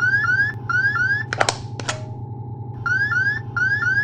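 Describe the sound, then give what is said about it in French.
A spacecraft guidance computer program alarm 1202 sounds during descent to the Moon, in bursts of rapid rising electronic chirps over a steady low hum, pauses briefly after a couple of sharp clicks, then resumes. “Houston, que signifie l'alarme programme 1202 Compris, c'est bon, feu vert, avec cette alarme.”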